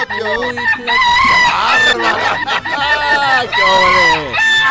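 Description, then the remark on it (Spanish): A rooster crows loudly, several long, strained crows in quick succession with barely a pause between them, filling the whole stretch. “pero venga, cántale, mi gallo.”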